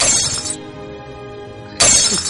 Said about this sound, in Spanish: Que se rompan los platos. ¡Ay, mira qué bien! Sí, sí, mira, cómo suena, cómo suena el cómo suena romperse el plato, mira.